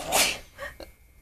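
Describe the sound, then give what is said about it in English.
A single sharp sneeze bursts out, a quick breathy explosion followed by a couple of faint sniffly trailing sounds before quiet. “Bless you.”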